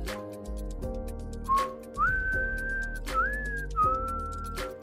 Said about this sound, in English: And this is the podcast for a guy with a film degree and a guy who knows how to whistle.